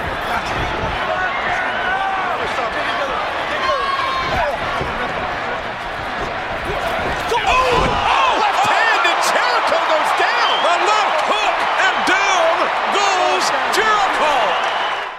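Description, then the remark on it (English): A couple of sharp, thudding punches land in a wrestling match at WrestleMania amid a loud, roaring crowd, the impacts briefly cutting through the constant cheering and shouting that fills the whole stretch. “all of that buildup for basically two punches connected at WrestleMania,”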